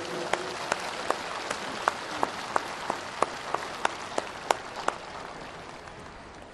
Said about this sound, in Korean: 오늘 아주 완벽한 날씨, 또 약간의 구름으로 덮어주시고 이 좋은 날씨를 주신 우리의 기도를 응답하신 하나님 앞에 감사의 박수를 올려드리겠습니다.